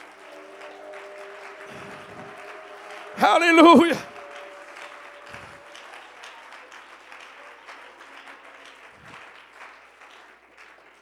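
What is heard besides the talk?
audience clapping hands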